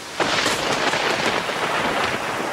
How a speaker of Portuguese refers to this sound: Tá chovendo aí?